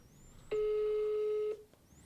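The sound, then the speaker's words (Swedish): A single steady electronic ringback tone from an outgoing phone call sounds for about a second, a clear mid-pitched hum, then cuts off into quiet background with no one speaking. “Jag tänkte att jag skulle höra av mig till henne och fråga.”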